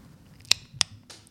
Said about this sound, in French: C'était le bruit de la ceinture. Ah, t'as accroché la ceinture J'ai accroché la ceinture là.